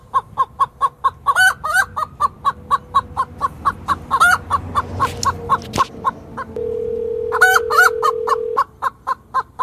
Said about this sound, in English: yeah, a lot of chickens.